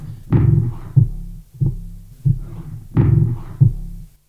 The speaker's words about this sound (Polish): możemy też zrobić dźwięk z efektem perkusyjnym. Wtedy trzeba po prostu ruch trochę wzmocnić no i szarpnąć za łyżkę. Ona wtedy sobie wibruje.